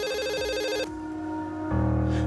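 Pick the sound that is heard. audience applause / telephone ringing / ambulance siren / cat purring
telephone ringing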